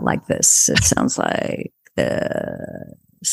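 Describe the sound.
A person speaks briefly, then demonstrates vocal fry: a drawn-out, low, creaky rattle in the voice lasting about a second before trailing off into quiet.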